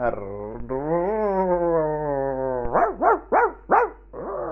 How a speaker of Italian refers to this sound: cani, cani abbaiano, si agitano i cavalli